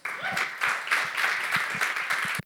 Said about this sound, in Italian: Facciamo un applauso a